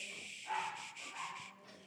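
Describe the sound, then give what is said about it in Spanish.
Dogs bark and yip in a quick run of several sharp, high bursts, fairly faint, with no one talking over them; the dogs are not fighting but are getting stressed. “los perros tienen vida.”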